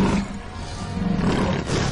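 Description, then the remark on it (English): A deep, rumbling tiger roar fills the whole two seconds, loud, with a gravelly low growl that swells slightly toward the end. No one speaks. “Tiger. He looks pretty beat up, man. He wants to even the score.”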